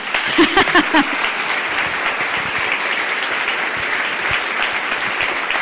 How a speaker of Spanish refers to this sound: Por eso yo de verdad les quiero un aplauso para la gente que se queda